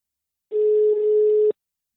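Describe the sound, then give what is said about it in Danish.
A single steady ringback tone from an outgoing phone call to one of the sports people of the Danish newspaper Nordjyske, lasting about one second, clear, with no voices. “Og vi starter med at øh, få ringet til en af nordjyskes øh, sportsminister, en af de faste stemmer i podcasten her,”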